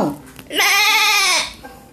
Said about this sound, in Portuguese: Baliram as ovelhas. Estamos muito ocupadas.